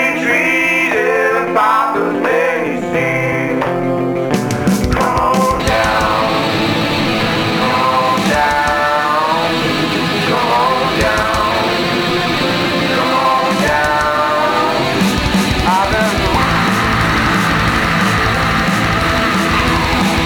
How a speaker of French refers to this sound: L'esprit blues dans la ligne de chant, les claps qui rappellent les Negro Spirituals, les trills et le hurlement.